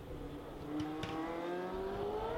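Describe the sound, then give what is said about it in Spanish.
A race car engine accelerates in first gear on a downhill stretch, its whining pitch climbing steadily over a couple of seconds, loud, with a brief rattling clack partway through and no voices. “Como os digo, los coches cuando llegaban a, a la y Ya que hacerlo en primera, aceleraban en la bajada y daban todo lo que, lo que daban los coches de, esa época, que no era poco, ¿eh?”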